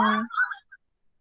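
A brief burst of sound suddenly plays from laptop speakers as a WhatsApp story is opened on WhatsApp Web: a loud, voice-like harmonic snippet that cuts off after about half a second, followed by a tiny trailing blip and silence.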